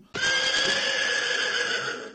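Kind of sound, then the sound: animal, horse galloping and neighing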